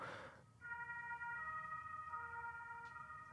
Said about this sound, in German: oh, jetzt ist hier Alarm.